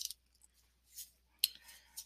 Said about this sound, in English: I'm going to go ahead and shuffle these cards. And, oh, they're, let's keep shuffling there. Um, let's just see what comes out.